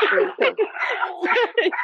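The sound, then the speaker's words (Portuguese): Dogs fighting, a tangle of snarls, growls and sharp yelps running together in rapid overlapping bursts for a couple of seconds. “Ai, meu Deus, meus cachorros estão brigando.”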